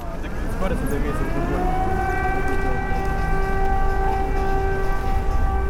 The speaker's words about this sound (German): Das, was wir da hören, sind Sirenen, die Judith draußen auf der Straße in Kiew aufgenommen hat.